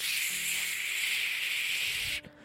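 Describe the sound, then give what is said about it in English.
A voice imitates static with a steady, airy hiss held for about two seconds before it abruptly cuts off. It is fairly loud, with no words spoken. “your brain's full of fucking like noise, like little like static, like it's like you're it's genuinely like static, static in your head, like going just going.”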